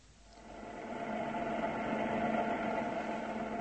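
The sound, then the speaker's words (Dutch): A steady mechanical hum from an air conditioning unit, swelling gradually over the first second and then holding an even, droning tone with faint rattling vibration. No voices are heard. “Het snucht zo, Joost. De klimaatregelaar.”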